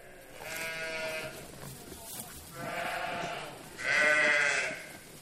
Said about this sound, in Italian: La storia di questo allevamento è da generazioni che noi eh, alleviamo pecore. L'allevava il mio bisnonno, l'allevava mio nonno, l'alleva mio padre e le allevo adesso io